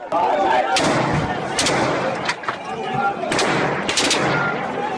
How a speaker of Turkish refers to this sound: Yaklaşık bir saat sonra Genelkurmay karargahından silah sesleri duyulmaya başlandı.